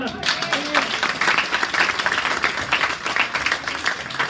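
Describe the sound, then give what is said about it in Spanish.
Loud, sustained applause from an audience, a dense steady wash of many hands clapping that holds throughout without pausing, with faint voices mixed in at the start. “Viendo, fuerte el aplauso así,”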